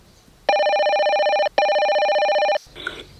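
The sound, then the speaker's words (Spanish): A telephone rings for an incoming call on a radio programme, two long electronic bursts, each about a second, made of bright stacked tones with a fast warble, separated by a brief gap, followed by a short faint rustle. “A continuación, entra en llamada el escritor famoso Edgar Allan Poe.”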